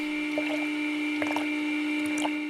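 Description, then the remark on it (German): Plant milk, a cow's-milk substitute, drips and squishes into bottles in a few short, wet bursts, over a steady mechanical hum from machinery. No one speaks. “Was hier in Flaschen tropft, sieht Kuhmilch ziemlich ähnlich.”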